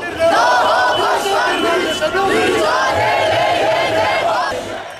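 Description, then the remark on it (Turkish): A large protest crowd in Kadıköy, Istanbul, gathered at the Altıyol bull statue, chants slogans while marching to the pier square, many voices rising and falling in loud, continuous, rhythmic shouted phrases with no pause across the five seconds. “Altı yolda boğa heykeli önünde toplanan vatandaşlar sloganlar eşliğinde iskele meydanına yürüdü.”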